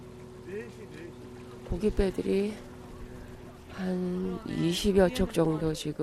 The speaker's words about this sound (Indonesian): Produser juga mengikuti para pelaut ke pelabuhan Dongmyonghang. Menjelang pukul 6 pagi, walaupun suasana sekitarnya masih gelap, sejumlah kapal penangkap ikan kembali ke pelabuhan.